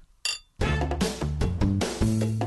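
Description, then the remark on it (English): A single bright, ringing clink of glasses of bubbly touching in a toast, short, followed right away by a burst of upbeat music with stepping notes. “It's the bubbly. Cheers.”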